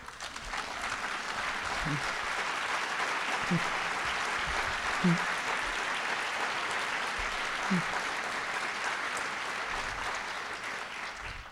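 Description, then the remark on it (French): Sustained applause from an audience, a dense steady clatter of many hands clapping for the whole stretch, with a few faint voices surfacing briefly underneath. “suis contente de m'applaudissiez sur ça parce que j'avais un petit trac à l'apporter, mais euh, OK, c'est bon.”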